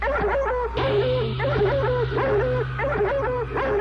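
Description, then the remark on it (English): Laika, a curly-haired dog trained for the flight, goes bow-wow in a quick, steady run of short, tonal barks, repeating in an even rhythm over a constant low hum, loud throughout. “We were all amazed to learn heartbeat of Laika, the dog, saying, bow wow, exercising his sense of humor.”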